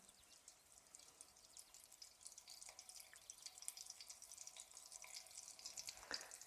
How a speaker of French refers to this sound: Et dès que j'entends que ça commence à crépiter un petit peu, que ça fait des petites bulles autour de la boulette, je vais pouvoir ajouter les autres. Ah ça y est, vous entendez ce petit bruit là ça, c'est le bruit de la cuisine.